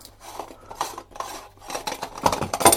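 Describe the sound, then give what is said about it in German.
Dishes and cutlery clatter and scrape as items are moved around and cleared off a cutting board in a small kitchen to make space for making breakfast, with a series of irregular clinks that grow louder toward the end. “Ja, ich gehe jetzt hier in meine Mini-Küche und das erste, was ich dann so anfange, ist, dass ich mir erstmal ein kleines bisschen Platz hier mache über mein Schneidbrett”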